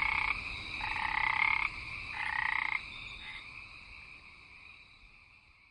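A chorus of frogs croaks in dense, rhythmic bursts of high, buzzy calls that rise and fall in waves, then thins out and grows fainter toward the end. No one speaks.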